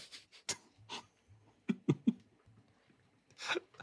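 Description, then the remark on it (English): Someone coughs in short, sharp bursts, with a tight cluster of three in the middle, plus scattered breathy gasps before and after as they clear their throat after choking on water. “I got water in my throat.”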